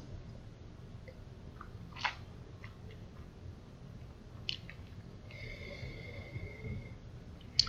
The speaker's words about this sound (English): So you have a bite of your meat, have a sip of your beer. So take another draw in, swish, swish, swallow, and then smell the glass and see how it changes.